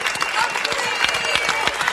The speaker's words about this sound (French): Encore 20 secondes. Ouais. Ah, on connaît pas cette partie-là des applaudissements.